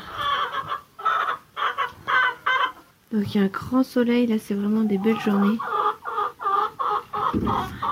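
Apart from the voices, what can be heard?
hens clucking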